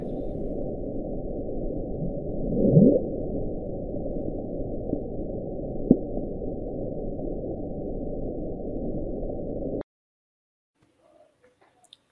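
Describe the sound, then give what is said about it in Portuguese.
An underwater hydrophone recording of the sound known as the Bloom, sped up about 14 times: a steady, muffled low rumble runs for about ten seconds, with one brief rising swoop near the start, then cuts off abruptly into near silence. “Então, vou tocar o som do Bloom aí e depois eu queria um, um breve comentário, é bem rapidinho.”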